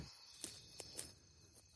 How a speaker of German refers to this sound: Oh Schön. Schön. Das ist äh, Grillen. Ich höre Grillen. Hörst du die Zirpen grillen?